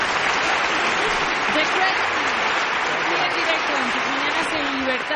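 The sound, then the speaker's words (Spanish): A steady wash of crowd applause, dense and loud, sustained for several seconds with many hands clapping at once, with voices faintly mixed into the noise. “¡Bravo! ¡Bravo! ¡Un aplauso!”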